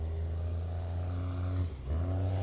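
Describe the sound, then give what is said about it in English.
A truck engine revs steadily with a deep, loud rumble, dipping briefly in pitch and power before surging back up as the driver backs the truck into a parking stall on a course marked with cones. “Throttle, throttle, throttle. Give it to him.”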